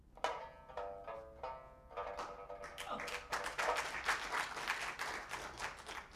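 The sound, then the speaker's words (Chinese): An audience breaks into applause for a performer after a sung passage of traditional Chinese opera, dense rapid clapping that swells and stays steady for several seconds, with a few early sharp taps before the full crowd joins in. “这段我还真没在名场上唱过，嗯，大家有这种掌声的鼓励，我感觉非常的高兴。”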